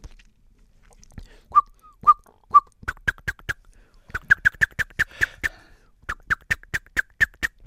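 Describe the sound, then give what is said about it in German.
A blackbird's ground-predator alarm call at an approaching cat, clear: a few soft whistled notes, then rapid bursts of sharp, clicking chinks repeated in agitated runs with brief pauses between. “aber dann kommt der Bodenfeind Alarmruf in leichter Form, kennt auch jeder. Nun kommt die Katze näher.”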